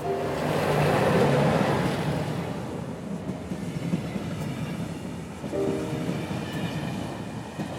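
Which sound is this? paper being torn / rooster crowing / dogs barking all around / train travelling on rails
train travelling on rails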